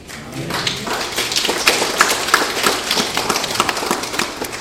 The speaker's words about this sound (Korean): 이와 같이 이 두 사람을 잡으시고 역사하실 우리 하나님께 이 시간 영광의 박수를 올려드립시다.